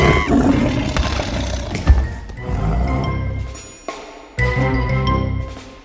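A lion pouncing on a goat roars loudly in deep, rumbling, growling bursts: one long snarling roar, a short break, then another heavy roar. No one speaks.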